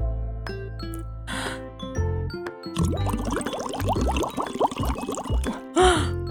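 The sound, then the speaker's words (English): Bubbly, gurgling burbles from blowing through a straw into soapy water, lasting a few seconds, fairly loud over soft background music, with short breathy puffs before and after. “And if you have a straw too, we're going to try sticking our straws into the water and then we are going to blow into our straws.”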